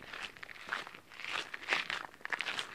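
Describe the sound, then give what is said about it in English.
Footsteps crunch over gravel at a steady walking pace, about five or six gritty, rustling steps in a row, fairly soft, with no voices, as people walk in toward the main entrance of a building. “It all sounds good, you know, on gravel going in, doesn't it?”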